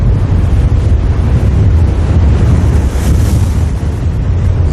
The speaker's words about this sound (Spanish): No canta ningún pájaro, no zumban los insectos. El único sonido es el viento a través de las malas hierbas tolerantes al ácido.